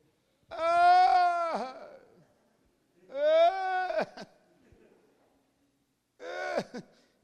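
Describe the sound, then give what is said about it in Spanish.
A voice imitates moaning, whimpering complaints in three drawn-out, wavering groans, the first longest and the last shortest, each ending in a catch or sob, mimicking a song of praise made only of complaints. Loud, with pauses between. “Imagínense una alabanza de, puras quejas.”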